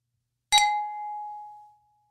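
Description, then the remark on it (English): A single bright clink of coffee cups tapped together in a toast, with a sharp ringing tone that lingers and fades over about a second. No voices. “Cheers to coffee.”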